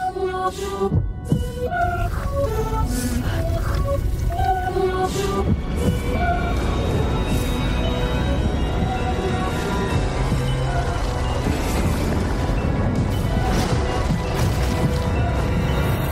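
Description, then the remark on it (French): Garbled, backwards-sounding voices drift over a dark, steady soundscape in the trailer for the Zelda sequel to Breath of the Wild, with a deep throbbing pulse and low hum, loud and unbroken throughout. “Les voix on sent que c'est mis à l'envers”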